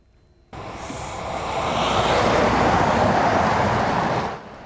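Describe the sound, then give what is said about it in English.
Cars and semi trucks roar past at the intersection of Highway 2 and Highway 3 near Oak Bluff, controlled by two stop signs, a loud, steady rush of tire and engine noise that swells in suddenly, holds for several seconds, then drops away, with no voices. “two stop signs control thousands of cars and semis at the intersection of highways 2 and 3.”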